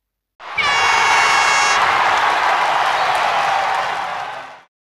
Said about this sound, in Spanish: Inserta por aquí aplausos.